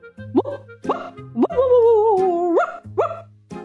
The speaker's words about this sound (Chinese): 小朋友，你们猜这次又是谁的声音呢？没错，就是一只大黄狗的声音。